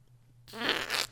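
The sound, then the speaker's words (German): A short, buzzy mouth-made fart noise, a single blown raspberry lasting about half a second, fairly loud, with no talking around it. “One X, dem Release und dem Social Event dein berühmtes Furzgeräusch gibst.”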